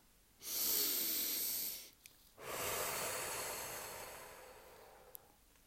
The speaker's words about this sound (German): Ich atme Luft tief ein und aus und verteile die Liebe in jede Zelle meines Körpers.